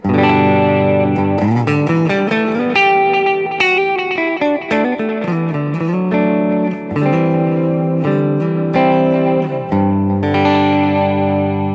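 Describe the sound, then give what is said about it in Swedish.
A loud, distorted electric guitar plays sustained chords and notes through two parallel delays set at 500 and about 375, one in the left channel and one in the right, their separate repeats smearing each phrase into a continuous, ringing wash. No one speaks. “Men nu går det ena delayet i vänster och det andra i höger. De går inte in i varandra, utan de går parallellt.”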